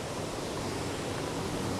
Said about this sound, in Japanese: すいませんめっちゃ川の音大きいですね